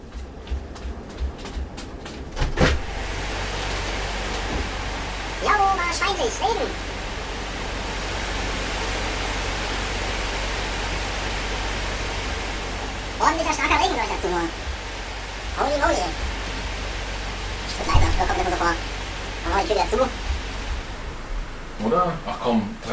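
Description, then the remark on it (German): Steady, dense hiss of heavy rain pouring down outside, continuous and fairly loud throughout, with a person's voice briefly heard speaking over it now and then. “Alter, ich glaube, da draußen ist gerade ein heftiger Regen.”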